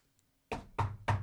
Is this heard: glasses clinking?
no